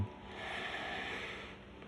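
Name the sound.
deep breath in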